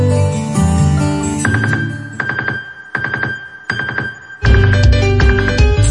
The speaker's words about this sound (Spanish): Esta es la alarma que te pone a gozar y ahorrar chelitos con Didi Economy.